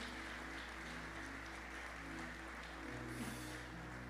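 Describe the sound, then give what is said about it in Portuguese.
A crowd claps steadily for several seconds, giving a strong applause to the Lord at night, a dense wash of applause with sustained keyboard chords playing underneath; no one speaks. “Se você é essa pessoa, dê um aplauso bem forte ao Senhor nessa noite em nome de Jesus.”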